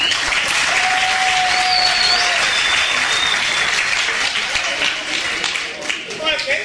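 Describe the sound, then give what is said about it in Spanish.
A crowd applauds loudly and steadily, dense clapping filling the whole stretch, with a few whistles rising above it before the applause begins to thin near the end. “Regálanos un fuerte aplauso.”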